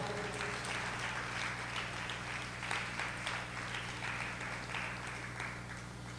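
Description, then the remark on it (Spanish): An audience applauds steadily, many hands clapping in a dense, sustained patter at an even level for several seconds, over a low constant hum. “Dele un aplauso porque Él es bueno.”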